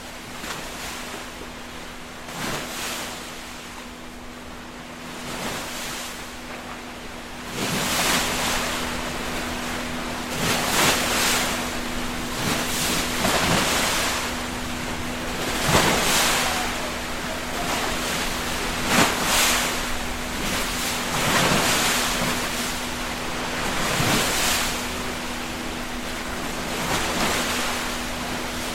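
Waves break on a public pebble beach in steady, repeating surges every few seconds, each a loud hissing wash with a bright rattle, over a constant low hum. No one speaks.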